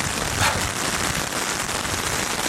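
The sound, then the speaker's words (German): Heavy rain patters steadily all around a person outdoors, a dense, continuous hiss of drops striking surfaces, fairly loud with no voices. “Also ich weiß gerade nicht, wo ich am Platz bin, wo sowohl Empfang ist als auch kein schlimmer Regen”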